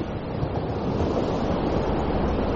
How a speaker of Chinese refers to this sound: 感受大海的拥抱，专心静气的聆听着大海的声音。